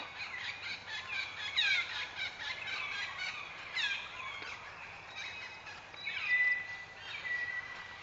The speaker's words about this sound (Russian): экзотические птицы на острове Хавлок, одном из а, андаманских островов.